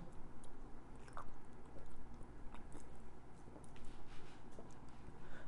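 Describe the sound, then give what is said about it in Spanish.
Someone drinks water, a series of soft wet gulps and swallowing sounds over quiet background noise, with no talking. “Espérame tantito, voy a tomar tantita agua, con tu permiso.”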